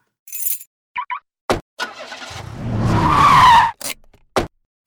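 car driving off

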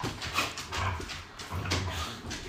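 dogs whimpering and yipping

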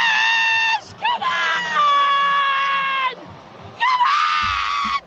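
person screaming

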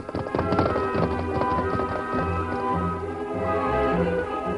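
horse hooves clip-clopping

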